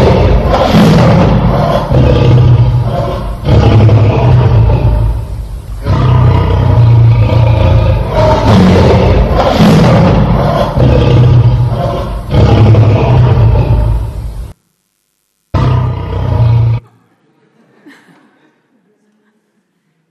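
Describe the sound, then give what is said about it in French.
A lion roars loudly in several long, rumbling bursts that run together, then one short final growl before the sound cuts to near silence. “C'est le rugissement du lion de Judas.”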